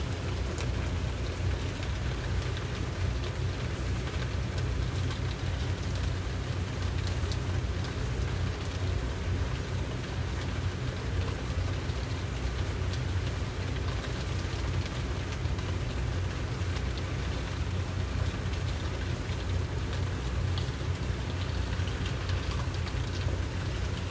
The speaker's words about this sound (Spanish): Si te estás enfocando en el sonido de la lluvia, te invito a que lo hagas de una manera no juiciosa, escuchando tono, timbre, duración, volumen de ese sonido tan particular que tiene la lluvia.